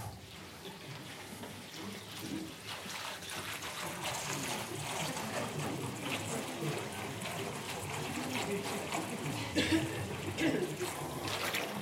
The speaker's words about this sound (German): Hier haben wir ein paar Liter Wasser in einem Schwimmbecken oder einem Meer. Oh, ist das stark, oder?